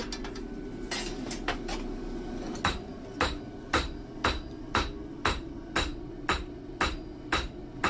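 Metal hammer blows ring out on iron as a blacksmith in Jeungpyeong forges it, widening, lengthening and bending the metal, striking in a steady rhythm of about a dozen sharp, bright clangs, the pace quickening in the second half over a low rumbling background.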